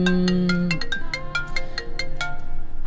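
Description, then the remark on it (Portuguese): A mobile phone ringtone plays loudly, a bright repeating melody of quick electronic notes with a sustained tone at the start, continuing steadily throughout. “Está para aqui um telemóvel que não sei de quem é, a tocar.”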